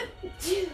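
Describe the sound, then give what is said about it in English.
A single quick allergy sneeze: a sudden breathy, hissing burst trailing into a brief voiced tone, fairly soft overall with no talking around it. “Fallout. Bless you.”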